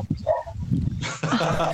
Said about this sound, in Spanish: Igual le voy a poner una musiquita al audio por los perros, no se hagan drama.